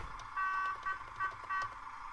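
A bus horn honks in several short bursts in a traffic jam, one longer blast followed by quicker toots, loud with a steady tonal buzz, no voices.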